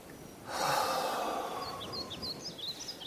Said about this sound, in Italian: Io adesso la lascio andare, respiro profondo.